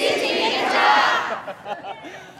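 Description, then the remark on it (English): A crowd of a couple dozen people gathered at a ferry terminal shouts slogans such as "I love China" and "Support the police" together in a loud, sustained chant for about a second and a half, then breaks off into scattered calls and murmuring. “A couple dozen people are gathering at the ferry terminal.”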